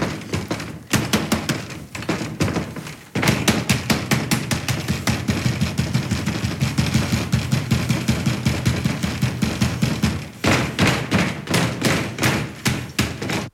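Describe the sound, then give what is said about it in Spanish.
Rapid, insistent knocking on a door from outside, loud, hammering in fast steady bursts with a few brief pauses. No voices accompany it. “Afuera, Marie golpea insistentemente la puerta.”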